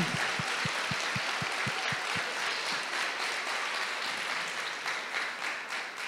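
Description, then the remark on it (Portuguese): A crowd breaks into sustained applause for the Lord Jesus after a prayer, many hands clapping together in a dense, steady wash, with a few distinct rhythmic claps standing out near the start before blending into the roar. “Aplauda o Senhor Jesus.”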